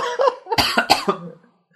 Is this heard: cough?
yes